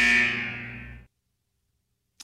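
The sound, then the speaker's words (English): A single loud, harsh game show buzzer blares for about a second, then cuts off abruptly, leaving silence broken only by a faint click. “well, she respects the buzzer.”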